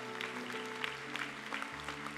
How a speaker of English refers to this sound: Come on, let's clap our hands because every hand represents a soul. I see you in the back. Come on.